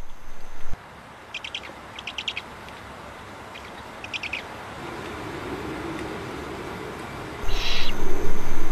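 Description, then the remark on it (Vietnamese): Young owls on a cliff face give repeated raspy, hissing begging calls in short bursts as they come out to be fed, over a steady low background rumble, with a louder burst near the end. “Những con cú non đi ra để được mớm mồi”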